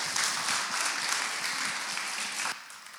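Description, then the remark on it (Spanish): Sustained applause from a church audience applauding God during a sermon, a dense steady wash of many hands clapping, loud and continuous before tapering off slightly near the end; no one speaks over it. “Dale un fuerte aplauso a Dios y vamos a pasar al segundo punto.”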